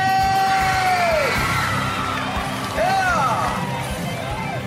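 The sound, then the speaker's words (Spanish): A crowd lets out cheering yells and rising, swooping whoops for women on a day celebrating them, several voices calling out loudly over a dense roar of noise, with a couple of distinct whoops standing out near the end. “Y que se escuche el grito para las mujeres.”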